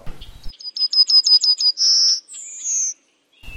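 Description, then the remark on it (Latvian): A yellowhammer sings one of its geographically separated song dialects: a quick run of about seven short, high, repeated notes, then two long drawn-out notes, the second higher and slightly falling. Brief speech is heard at the start and end. “Tā arī putniem tas ir atklāts, ka daudzām sugām ir šie geogrāfiski nodalītie dialekti, un zeltainā stērsta ir viena no tādām, kam tas ir labi aprakstīts, un tagad pirmo reizi tiek pētīts visā izplatības areālā.”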